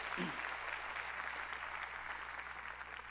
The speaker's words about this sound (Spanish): Gloria a Dios. Démosle fuerte aplauso al Rey de Reyes.